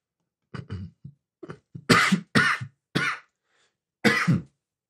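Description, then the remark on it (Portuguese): A burst of harsh coughing: several forceful coughs in quick succession after some low throat-clearing rumbles, with a final cough following a short pause. No speech. “Eita, tosse.”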